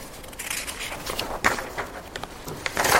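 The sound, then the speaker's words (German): Dry paper rustling as a book page is turned, with soft crinkly scrapes, a sharper flick midway and a fuller swish at the end. No one speaks. “Moment, ich muss gerade umblättern.”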